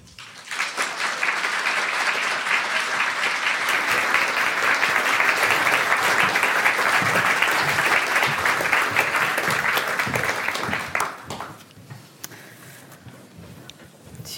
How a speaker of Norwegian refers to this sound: Vi ønsker dem alle sammen opp på scenen med en varm applaus.